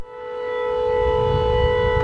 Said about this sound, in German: Inzwischen ließ die Regierung zwei Luftschutzbunker für die rund 60 Einwohner des Dorfes errichten. Dorthin können sie bei Luftalarm flüchten.